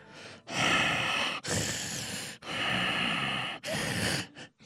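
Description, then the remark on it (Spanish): A voice imitates heavy, huffing breaths: four loud, raspy snorting exhales in a steady rhythm, with no talking, then a short faint puff at the end. “Para esto usted ya se dio cuenta que yo soy el asesino porque estoy bufando.”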